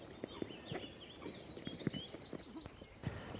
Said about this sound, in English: It's like, it's like laughing from the reed beds. There. That funny sound, I think, is the sound of the little grebe, which is tiny, tiny, as its name suggests. Is there one out there? Yeah, there is one out there.